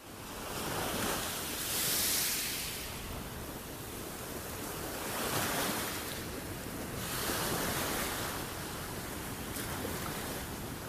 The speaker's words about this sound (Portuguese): Agora vamos fazer silêncio e pensar num mar bem bonito. Quem nunca conheceu o mar de perto pode imaginar um, com uma água que vai tão longe que até parece que gruda no céu, lá no horizonte. Agora vamos ouvir. Silêncio.